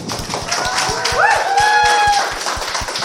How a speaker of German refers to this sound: Bitte einen ganz, ganz donnernden Applaus für Phoenix.